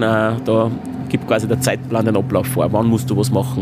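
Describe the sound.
A steady engine drone from race cars circling the Red Bull Ring track runs underneath a man talking, continuous and fairly low in the background.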